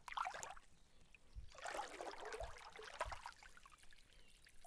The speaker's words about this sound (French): La rivière replonge dans la torpeur rafraîchie par le clapotis.